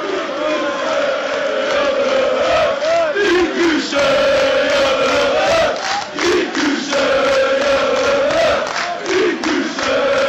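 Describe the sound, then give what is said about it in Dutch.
A rowdy group of people at a party in a living room, just after a Cambuur match, cheers and chants together, loud and continuous, with rising and falling shouted voices and occasional whoops over a dense crowd din. “Ja, het wieder eh, tieren gezellig just na die wedstrijd.”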